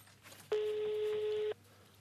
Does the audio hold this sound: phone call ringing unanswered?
yes